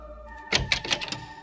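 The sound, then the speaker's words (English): A quick series of about four or five sharp knocks on a door, in a steady rhythm, with a faint background hum and no talking. “there's someone at the door.”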